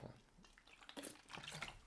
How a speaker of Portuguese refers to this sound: Vai, até vou beber aqui um golão d'água